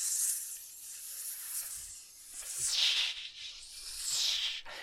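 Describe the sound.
A person hisses like a snake, drawn-out breathy "shh" sounds in a few swelling waves, with no words spoken.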